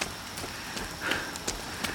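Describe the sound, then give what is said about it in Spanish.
Steady, soft warm rain falls on town streets on a humid summer night with a continuous hiss, scattered sharper drops tapping through it at irregular intervals. It's fairly quiet and even throughout, with no voices. “La lluvia es cálida.”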